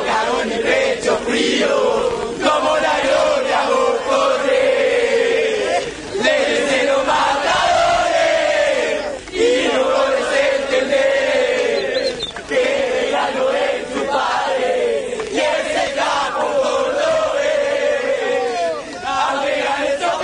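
A large crowd of football supporters chants in unison in a stadium, a loud, continuous, rhythmic roar of massed voices rising and falling in repeated phrases for the whole stretch.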